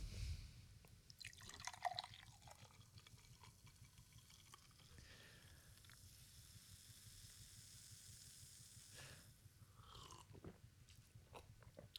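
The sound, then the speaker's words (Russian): Soda is poured into a glass, a steady liquid stream with fizzy crackling and small splashes running the whole time. Nobody speaks. “будешь газировочки? Да, да, буду, конечно.”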